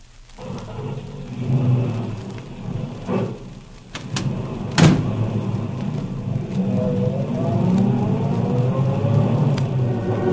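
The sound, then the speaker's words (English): A car carrying two men pulls away down the road: a steady low engine rumble, a sharp door-like bang midway, then the motor revs up with rising tones as it drives off, with no talking. “Henry and Bill are traveling down the road, I'd like to tell you something about them.”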